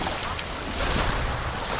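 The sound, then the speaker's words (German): Seawater rushes and washes steadily against a shore, a continuous hissing surge with a slight swell midway, moderately loud, with no voices over it. “Da rauscht es das Wasser, wohin das Glied fiel”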